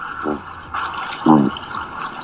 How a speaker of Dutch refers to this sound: Wat horen we eerst, de schelvis of de kabeljauw? Eerst de kabeljauw.